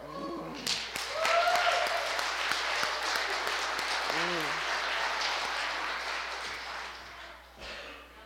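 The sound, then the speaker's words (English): A crowd breaks into loud, dense applause for their lead pastor, rising quickly and holding steady for several seconds before tapering off, with a couple of brief whoops and voices rising above the clapping. “But to make it a little bit less awkward than it is, why don't we give a big round of applause for our lead pastor, the most handsome man with a beard in the room,”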